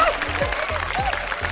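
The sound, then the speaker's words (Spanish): A steady burst of applause, dense overlapping clapping at an even level for the whole moment, with faint whistle-like tones and soft low thumps mixed in. “¡Otro aplauso!”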